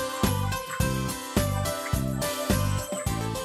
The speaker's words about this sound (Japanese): でも結構あれですね BGM あの大きめなんですね